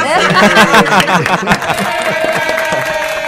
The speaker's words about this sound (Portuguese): Olha, gente, vocês ouviram aqui, além das palmas eletrônicas da Tabajara, vocês ouviram aqui um monte de palmas aqui, porque a gente está recebendo aqui um grupo de, de jovens alunos